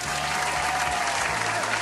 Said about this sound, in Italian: Un applauso? Possibilmente sì, anzi lo mettiamo adesso in regia un applauso.